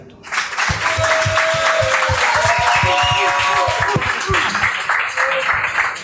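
A crowd applauds steadily for several seconds, dense overlapping claps filling the room at a strong, even level, with a few cheers and voices mixed into the clapping.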